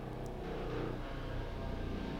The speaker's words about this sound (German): Das ist, grad, ist bei dir ja, super laut gerade. Ja, fliegt gerade ein Hubschrauber über. Aber er ist, er ist weg.